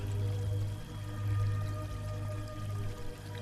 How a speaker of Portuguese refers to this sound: no meio de uma floresta onde você encontra uma linda cachoeira. Bem rasinha, a água cristalina jorrando, caindo,